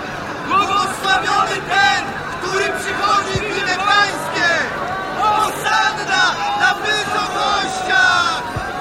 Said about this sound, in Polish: A tłumy, które go poprzedzały i które szły za nim, wołały głośno. Hosanna synowi Dawida!